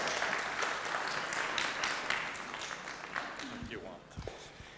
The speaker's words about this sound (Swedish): Välkommen fram! Ja, en applåd!